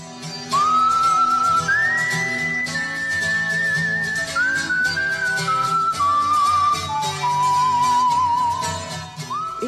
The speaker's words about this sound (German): Die 1989 geborene Australierin hat als Kind einfach gerne gepfiffen. Und immer mehr gepfiffen irgendwann ganze Filmsoundtracks.